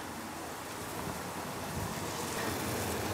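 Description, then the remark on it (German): Cinnamon apples sizzle steadily in a pan on a stove in the kitchen at Radio 24, a dense, crackling hiss that holds at an even level throughout and swells slightly toward the end, with no voices over it. “Es brutzelt etwas.”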